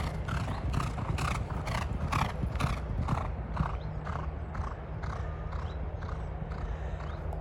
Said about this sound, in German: Kurzer Break im Interview. Im Lot ist eben nicht nur ein Pferd unterwegs.